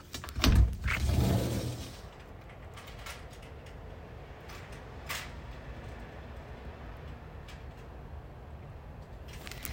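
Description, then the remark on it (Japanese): An electrician climbing a ladder: a loud rattling clatter for a couple of seconds, then quieter, scattered knocks and creaks at irregular intervals against a low background hum. “電気屋さんのはしごの音”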